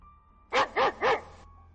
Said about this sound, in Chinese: 我听见身后传来狗吠的声音。